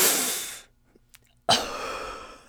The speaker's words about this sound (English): like you'll hear me take like the most deep, sharp breath ever.